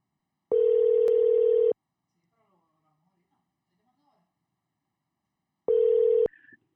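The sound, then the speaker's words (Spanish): An outgoing phone call's ringback tone while calling a pastor: two steady electronic buzzing rings, each a little over a second long, separated by about four seconds of near silence, with the second ring cut off abruptly. “Vamos a llamar al pastor.”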